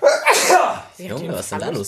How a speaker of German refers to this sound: Oh, Junge, das ist, da fliegen am Fass die Schneidezähne weg hier bei so einem Nieser, du.